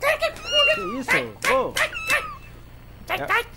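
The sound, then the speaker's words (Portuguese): A cat meows repeatedly, a rapid run of loud, drawn-out, wavering cries, then a short pause before two more complaining meows. “Larga o gato!”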